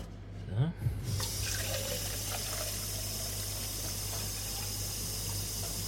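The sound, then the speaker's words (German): Tap water runs steadily into a measuring jug while cooking, a continuous hiss and splash that starts after a brief clatter and keeps going without a break. “geht hier alles schon direkt in den, in den Messbecher rein, nicht, dass ich ungefähr auch einen groben Überblick habe, wie viel das nun ist.”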